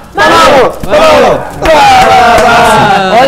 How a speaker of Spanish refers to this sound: Ahí uh. es donde va el grito